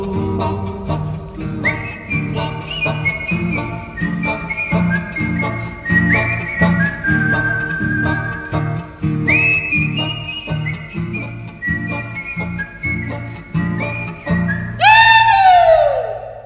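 A recorded folk song with steady strummed accompaniment and a bright whistled melody line, ending in a loud, rising whistle flourish. No one speaks.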